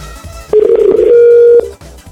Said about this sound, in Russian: гудки такие истерические.